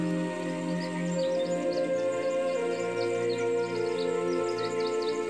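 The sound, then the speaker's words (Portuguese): Birds twitter and chirp at dawn beside a lake in quick, scattered calls throughout, fairly soft and layered over a steady, sustained musical drone, giving a calm early-morning feel. “ouço o canto dos pássaros saudando o amanhecer.”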